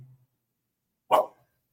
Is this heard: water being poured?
no